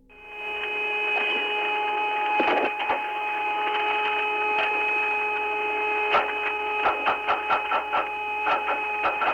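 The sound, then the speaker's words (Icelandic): Eerie electronic interference from space, which NASA said was most likely electromagnetic interference: a steady, layered drone of high sustained tones, broken by sharp crackling bursts and clicks that become more frequent and rhythmic toward the end. No voices. “En til að skýra málið þá byrti NASA færslu þar sem sagt er frá því að líklegast var engangu um að ræða rafseguls tröflanir. Við skulum heyra þessa förðulegu tónlist.”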